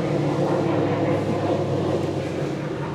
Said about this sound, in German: Nein, das ist von den Pilatus-Flugwerken da hinten. Wir machen jetzt höchstens irgendeinen Testflug.